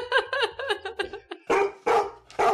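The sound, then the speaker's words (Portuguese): A Newfoundland dog barks, first a quick run of short, rhythmic yelps, then three loud, heavy barks spaced about half a second apart, with no one talking. “E o Terra Nova late muito ou é tranquilinho?”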